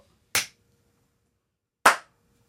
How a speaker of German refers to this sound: Perfekt. Bist du nicht zufrieden mit dem ersten Klatscher? Ich bin nicht zufrieden.